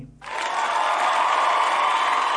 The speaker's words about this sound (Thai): ปรบมือให้ตัวเองนะครับ